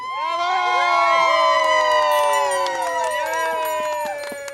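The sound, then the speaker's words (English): A group of people cheer and shriek with excitement at the arrival of a truck named Splendor, several high-pitched voices overlapping in loud, sustained whoops that stay strong nearly the whole time before easing slightly at the end. “has her phone held high to capture this moment on video and occasionally bursts into a high pitched, glee ridden combustion of joy.”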